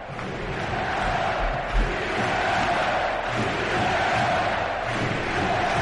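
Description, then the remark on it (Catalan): A packed basketball arena crowd roars and chants "sí se puede" together in a loud, sustained wall of voices that carries steadily for several seconds, with no single speaker standing out. “És que jo crec que Brochanski està tan descentrat que ha estat a punt d'aplaudir dient si se puede, si se puede.”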